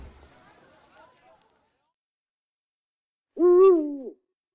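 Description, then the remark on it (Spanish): A single loud owl hoot rings out after a stretch of faint, low murmuring, the call holding steady for under a second before cutting off into silence; night animals calling in open countryside at midnight on the outskirts of a village. “Se escuchan a los animales nocturnos hacer sus distintos sonidos, que Raúl por el miedo convierte en su imaginación en monstruos que esperan su oportunidad para abalanzarse sobre él.”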